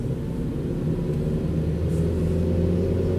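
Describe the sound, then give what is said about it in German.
Steady low engine rumble of a car driving along a large country road, a continuous droning hum with faint tonal whine that holds constant, moderately loud, with no voices. “Wir fahren erst 20 Minuten.”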